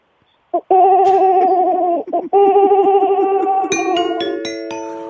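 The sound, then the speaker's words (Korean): A child's voice imitates a pigeon cooing in two long, warbling, throaty runs, followed by a bright ascending ding-dong chime of bell tones awarded for the imitation. “비둘기 되게 잘했거든.”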